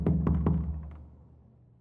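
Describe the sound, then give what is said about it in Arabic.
Three soft, evenly spaced knocks on the wooden door of a cabin at night, muffled and hollow, followed by a faint fourth tap as the resonance dies away into quiet. “وفجأة سمع حد بيخبط بالراحة على باب الكوخ”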